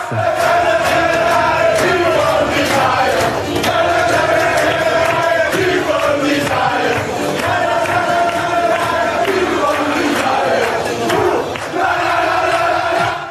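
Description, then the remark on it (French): The men of the French national team, Les Bleus, loudly sing their chosen anthem together in the locker room, with Emmanuel Macron present, voices joined in a steady, chant-like melody with rhythmic shouts rising throughout. “Il était hier dans les tribunes puis dans les vestiaires au son de l'hymne choisi par les Bleus.”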